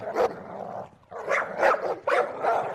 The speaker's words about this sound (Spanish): Perritos, perritos, ¿dónde están perritos? Aquí están. Vengan, animalitos, les voy a dar un hueso. ¡Andra, ladra!